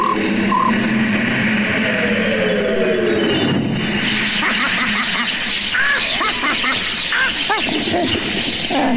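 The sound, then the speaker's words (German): A dense, chaotic flock of sparrows raining down from the sky chirps and twitters all at once, loud, with a constant busy fluttering commotion filling the whole stretch. “Es sollte Honigbrot regnen, keine Spatzen.”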